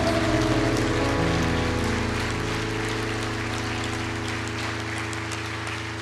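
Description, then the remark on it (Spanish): A large church audience applauds for the Lord in a steady, dense patter that continues for several seconds, over sustained, droning keyboard chords. “Suelte su Biblia y dele fuerte ese aplauso al Señor.”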